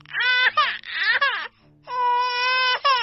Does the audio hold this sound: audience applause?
no